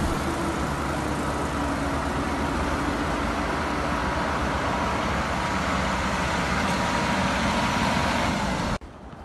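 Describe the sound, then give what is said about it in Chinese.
Snow removal trucks sweep snow from the road, rumbling steadily: a loud continuous engine roar mixed with a broad hissing scrape that holds for about nine seconds and then cuts off abruptly. No one speaks. “今天路上的除雪车都在扫雪呢。”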